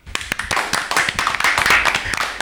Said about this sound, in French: Ça s'applaudit, je crois.